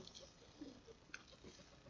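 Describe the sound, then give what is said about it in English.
A person drinks water, making soft wet mouth noises with a few small clicks and a sharper swallow near the end. No one speaks. “Pardon me while I drink some wet water.”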